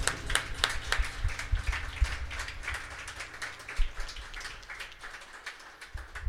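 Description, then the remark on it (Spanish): An audience applauding for the Lord, many hands clapping in a dense, steady patter that holds at an even, moderate loudness for the whole stretch, with no voices over it. “Dale bien fuerte ese aplauso al Señor.”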